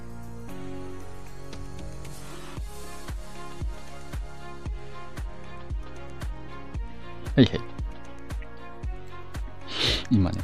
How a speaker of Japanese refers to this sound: めっちゃ咳しました。